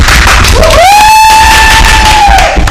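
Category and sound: crowd, round of applause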